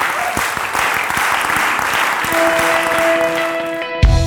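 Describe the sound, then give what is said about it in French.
A large audience claps and cheers steadily throughout, acclaiming God after a closing prayer, a dense, sustained wash of applause, while a held keyboard tone rises beneath it midway before the sound cuts off abruptly. “Acclamez votre Dieu.”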